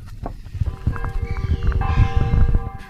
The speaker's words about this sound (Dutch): We lopen over het grind naar links het bos in.